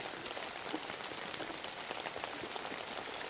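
Steady rain falls continuously late at night, heard from home, a dense hiss of drops pattering on a surface with small scattered taps, even in loudness throughout and with no voices.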